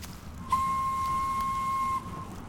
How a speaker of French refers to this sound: D'un seul coup, il entend le train au loin qui part pour la ville.